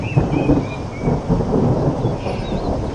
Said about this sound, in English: Oh no, why is it raining at this time?